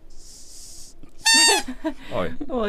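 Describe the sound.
A squeezed toy shark, called the 'spoiler shark', lets out an airy hiss, then a loud, brief, reedy squeal, followed by laughter and a voice speaking.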